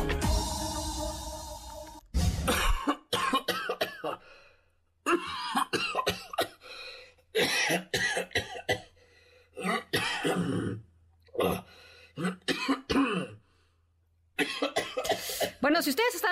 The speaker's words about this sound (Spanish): acostumbrados eh, a ese tipo de toses, es momento que uno, o dejen de fumar, basta ya,